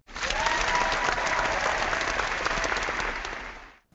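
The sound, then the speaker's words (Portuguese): A crowd claps steadily and loudly for nearly four seconds, a dense wash of many hands that stays even before fading out abruptly at the end. “Uma salva de palmas.”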